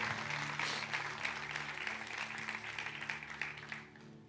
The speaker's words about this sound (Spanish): Si lo cree, déle un fuerte aplauso a Dios por eso.